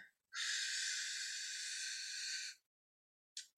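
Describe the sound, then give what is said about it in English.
A long, steady, airy inhale lasting about two seconds, clear, followed by a brief silent pause as the breath is held before another breath begins, during a slow 10-breath deep-breathing exercise. “I'm going to take in a deep breath,”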